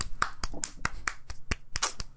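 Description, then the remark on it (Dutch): A short burst of about ten sharp hand claps in a quick, slightly uneven rhythm, each one a crisp slap at moderate volume, with no voices. “Zo even klappen?”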